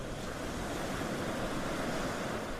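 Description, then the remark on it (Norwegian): Heavy surf with waves two to three metres high churns continuously under a strong wind buffeting the microphone, a dense, unbroken wash of ocean noise with no voices present, at sea off the skerries near Fuglehuk. “Det har begynt å blåse kraftig. Bølgene er mellom to og tre meter høye,”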